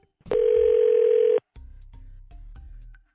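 A telephone line is being dialed: a loud, steady tone holds for about a second, then stops, and a series of short, quieter beeps and clicks follows close by. No one speaks.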